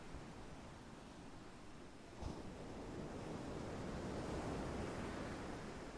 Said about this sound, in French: Vous pouvez entendre les différences entre la gauche et la droite, au moment où ces vagues viennent tapisser le sable ou les rochers.